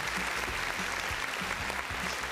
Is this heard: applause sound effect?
yes